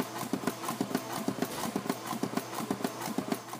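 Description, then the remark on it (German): The compressor of a pneumatic artificial heart by US company Syncardia pumps air through two tubes into the two artificial heart chambers, at 72 decibels, with steady, rhythmic mechanical clacks. The clacks come in quick paired beats over a constant airy hiss, moderately loud, with no voices. “Beim Produkt des US-Unternehmens Syncardia pumpt ein Kompressor über zwei Schläuche Luft in die beiden künstlichen Herzkammern.”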